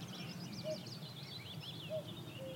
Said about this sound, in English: And you hear willow warblers calling